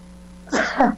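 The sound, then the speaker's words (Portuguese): A single sneeze bursts out, a short two-part explosive puff about half a second long, with quiet hum before and after and no talking. “aqui que deu, deu, deu um, ah, um espirro.”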